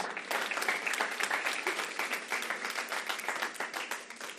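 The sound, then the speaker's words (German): An audience applauds steadily, many hands clapping in a dense, continuous patter that stays fairly even in loudness throughout. “Da war wenigstens ein Applaus, aber das ist ein guter Applaus.”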